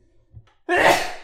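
A single loud, abrupt sneeze bursts out after a brief quiet moment with a faint intake of breath.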